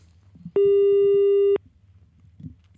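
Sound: telephone busy tone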